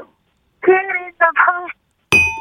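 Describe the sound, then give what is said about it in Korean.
A short stretch of someone talking, then a single bright bell ding, the wrong-answer bell of a KBS phone-in quiz show, struck sharply at the end and left ringing loudly with steady tones. “예 알아도 땡 예. 몰라도 자, 땡.”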